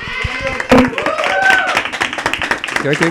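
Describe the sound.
A burst of applause from several people, dense, rapid claps running throughout, with voices cheering and calling out over the clapping.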